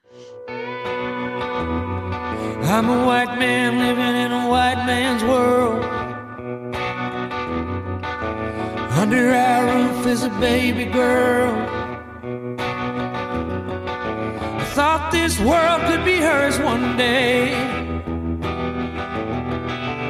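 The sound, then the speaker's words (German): A song plays loudly and continuously, a male voice singing lyrics over full instrumental backing with guitars, the vocal phrases rising and falling in steady verses. “Dann hören wir mal kurz rein.”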